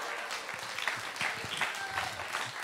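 Steady audience applause, a dense crackle of many hands clapping at once, holding an even level throughout with no voices standing out.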